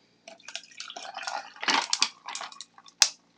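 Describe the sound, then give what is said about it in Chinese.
Matcha poured over ice in a cup, a bubbling, splashing pour with crackling ice clinks, ending in a sharp clink near the end. No talking. “好，那我冰块准备好了，你可以把你的抹茶呢倒在你的冰块里面。”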